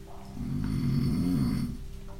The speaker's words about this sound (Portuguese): Esse som cresceu até transformar-se no gorgolejo inconfundível de um animal enorme, roncando lá embaixo, no clarão vermelho à frente do hobbit.